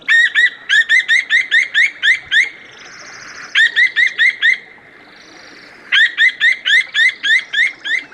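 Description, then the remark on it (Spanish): A little owl, flying with noisy wingbeats, calls in three quick bursts of sharp, repeated hoots, each run of about eight notes loud, separated by short quiet pauses with no voices. “El mochuelo voló tras él haciendo mucho ruido con las alas. Cuando le alcanzó, empezó a ulular.”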